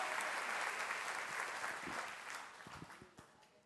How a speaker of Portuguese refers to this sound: Se é para o Senhor, aplauda mais forte. Ele é Senhor do tempo e da história.